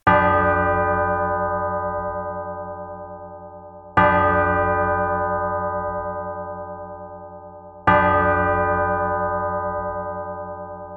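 A deep church bell tolls three times, about four seconds apart, each loud strike humming and slowly fading before the next. No voices are heard.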